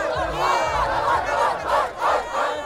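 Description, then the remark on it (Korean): Dozens of Danish high school graduates, celebrating the end of school, yell and whoop together as they run toward the listener from far away, in a sustained, rising clamor, the shouts swelling in repeated waves, loud. “그렇게 술을 마시던 중에 저 멀리서 수십 명의 무리들이 소리 지르며 달려오는데요.”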